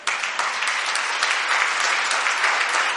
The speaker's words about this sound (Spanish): Podemos darle una ofrenda de palmas al Señor.